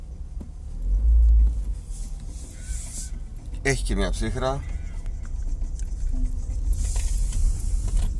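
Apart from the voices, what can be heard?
car interior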